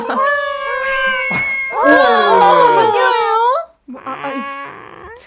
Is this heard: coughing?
no